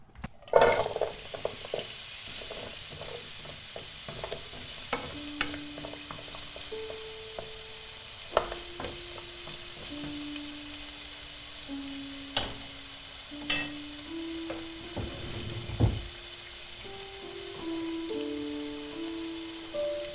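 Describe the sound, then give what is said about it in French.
Small pre-cut diced pieces gently browning in a non-stick pan: a continuous crackling hiss with scattered pops and occasional scrapes of stirring, plus faint tonal squeaks; no one speaks. “Et puis, euh, simplement, je, rajoute mes petits dés que j'ai découpés et je les fais revenir doucement.”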